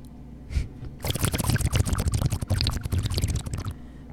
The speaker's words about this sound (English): I'm going to drink this water since you won't. Sorry, agua. H2O.